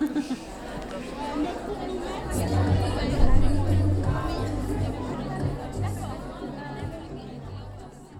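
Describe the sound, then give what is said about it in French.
A dense, steady murmur of many voices talking at once from a festival crowd of over 600 visitors at 6 pm, in the rain, with a low hum underneath and no single voice standing out. “Il est 18h et on a dépassé les 600 entrées au festival. Malgré la pluie.”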